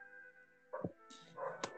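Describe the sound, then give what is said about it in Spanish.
Neighborhood dogs bark in short bursts, a couple of sharp woofs and a yip over a steady background hum, with no one talking. “No es mi culpa que mis, todo, todo mi pinche barrio tenga perros y sean más bullosos que la mierda.”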